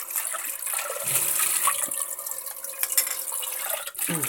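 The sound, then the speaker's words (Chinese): Water pours steadily into a cleaned steamer pot to make soup, a continuous bright, splashy rush for about four seconds with faint dripping and sloshing textures, with no voices. “好，我觉得水放少一点啊，不用放太多水。”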